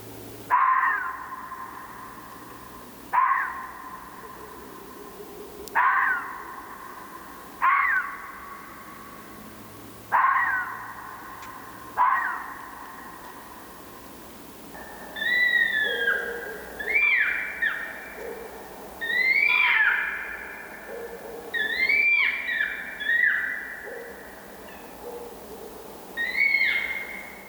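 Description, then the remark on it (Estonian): A red fox gives a steady series of hoarse barks, about one every two seconds, then breaks into a faster run of higher, wavering yelps and squeals, with no talking. “pakun veel rebase teema juurde lõpetuseks kuulamiseks ühte salvestust rebase häälega.”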